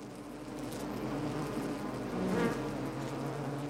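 A steady, low drone of many wasps buzzing together, continuous, with a slightly louder swell midway. No voices are heard.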